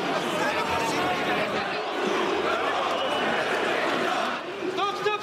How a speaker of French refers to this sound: Dans l'après-midi, une équipe de l'émission Quotidien est exfiltrée sous les huées et les insultes.